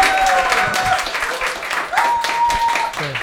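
A burst of dense applause from a small audience for a performer seated in the middle on stage, steady crackling claps across the whole stretch, with faint whistling tones rising above it now and then.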